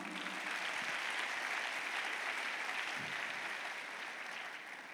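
A large church audience claps for the Lord in sustained, dense applause, steady and fairly loud for several seconds before easing slightly at the end.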